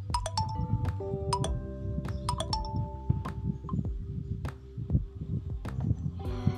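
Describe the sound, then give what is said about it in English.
A mobile phone rings with a bright, repeating electronic melody of chiming tones, moderately loud, over soft thumps and clinks of movement in the background. “And yeah, my phone was just ringing.”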